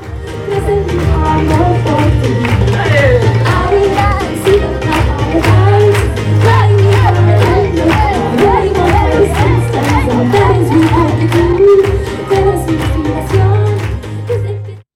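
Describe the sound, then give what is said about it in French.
A loud live concert crowd cheers on the performing artists, shouting and clapping along to a heavy, bass-driven track, the claps and beat landing in a steady rhythm that stays dense and saturated the whole way through. “Tout le monde était à fond, tout le monde était en train de crier, de taper dans les mains.”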